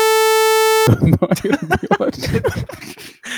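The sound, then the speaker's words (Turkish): A single harsh, buzzy PC speaker beep holds one steady pitch for just under a second, then cuts off as someone starts talking. “yani insan niye PC BIP'i açmak ister acaba bilmiyorum.”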